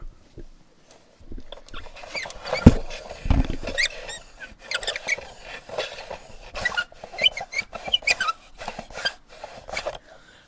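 A chair creaks and squeaks as it is adjusted to raise the person sitting in it for a haircut, with a run of irregular high squeals, scrapes and clicks over about ten seconds and a low thump near the start.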